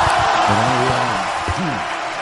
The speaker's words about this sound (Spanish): Aplauso y ovación.